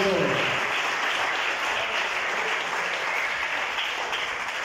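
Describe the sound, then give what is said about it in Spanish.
A crowd claps steadily in sustained, dense applause for Jesus that holds at an even loudness for several seconds, with a faint murmur of voices mixed in at the start. “Deseo a Jesús ese aplauso.”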